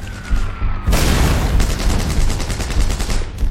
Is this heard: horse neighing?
no